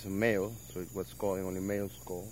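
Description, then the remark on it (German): A male red-eyed tree frog, held in a herpetologist's cupped hands at a banana plant, calls in a quick series of about five short, buzzy, harmonic croaks, each rising and falling slightly, moderately loud, with brief pauses between them. “Das hier ist ein Männchen, das hört man an seinem Ruf.”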